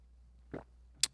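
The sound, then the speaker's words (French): A quick, quiet sip of coffee: a short soft slurping sound followed moments later by a brief, bright little click, with no one talking. “Joël, prends une gorgée. Chin chin”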